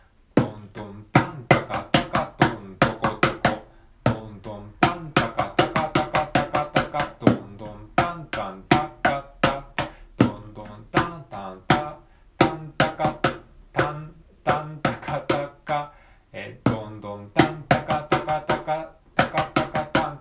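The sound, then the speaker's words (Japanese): A small mini cajon is played by hand and sounds crisp, with dry slaps and low thumps in a steady rhythm pattern broken by quick rolling three-beat fill-ins of rapid strokes over beats two to four of a four-count, repeating over and over. “ミニカホンを叩いてみた”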